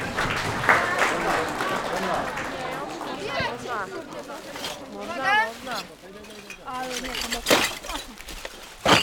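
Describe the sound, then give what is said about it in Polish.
A crowd claps steadily for everyone who showed up, a dense patter of hand claps that rises and swells over several seconds while voices chatter and call out over it. “Brawo dla wszystkich, którzy się pojawili.”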